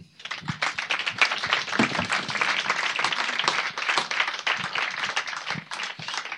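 An audience breaks into sustained applause, dense overlapping claps forming a steady crackling roar that holds at an even, fairly loud level for several seconds.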